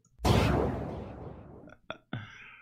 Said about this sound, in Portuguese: E aí eu é ia soltar o barulho de tiro. Só que olha que barulho tosco, vem.